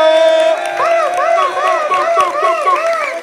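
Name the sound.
audience cheering and applauding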